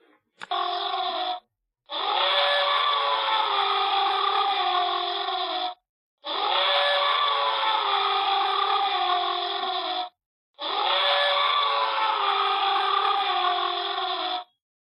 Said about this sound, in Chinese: 我们听一下大象大象的叫声吧。